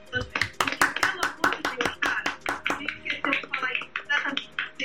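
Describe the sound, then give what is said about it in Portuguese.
Steady hand clapping, sharp crisp claps at a brisk rhythm of roughly three or four per second, continuing throughout at a fairly even loudness. “Eu gostaria de dedicar minhas palmas mais sinceras”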